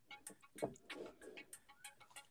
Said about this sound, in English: I I don't know how I feel about rooms with mysterious ticking noises.